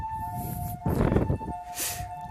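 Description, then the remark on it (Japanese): An emergency siren holds steady tones outside, moderately loud, while a burst of rumbling, hissing traffic noise swells briefly and fades. No one speaks. “で、まあいろいろ話してたんですけど、まあピーポーが、”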